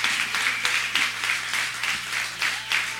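Steady audience applause, a dense wash of many hands clapping with a slightly pulsing rhythm, fairly loud and continuous throughout, with a low steady hum underneath and no clear speech.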